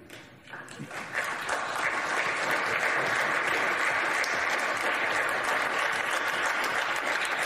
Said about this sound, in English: And they even stand up to applaud Mitt Romney.